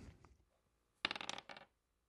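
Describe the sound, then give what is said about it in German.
A twenty-sided die clatters and tumbles across a hard surface in a quick burst of clicks lasting about half a second, then settles; fairly loud, with no voices. “Also, wenn du eine 1 bis 9 würfelst, dann geht's los.”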